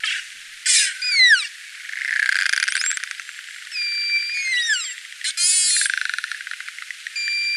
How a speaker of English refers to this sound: It sounded like one of those things that kids blow in. A trumpet? Yeah, like a trumpet or something. And and this is not one of those burst pulses. So this is just one of the many other sounds that narwhals make.